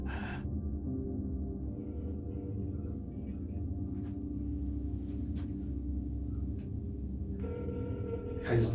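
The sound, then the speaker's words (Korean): A phone line rings on an outgoing call to a father's mobile phone, the muffled ringback tone repeating steadily over a low hum, with brief bursts of handling noise at the start and end. “그리고 아버지에게 전화를 걸죠.”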